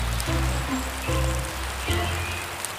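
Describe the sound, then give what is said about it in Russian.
Heavy rain pours down in a dense, steady hiss that fills the whole clip, fairly loud, with some low sustained tones humming underneath. “Но однажды шел сильный дождь.”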